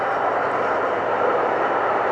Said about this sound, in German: Sorry, also dass hier so viel Züge fahren, das war mir definitiv nicht bewusst. Tut mir jetzt echt leid, aber ich bin jetzt auch gleich fertig.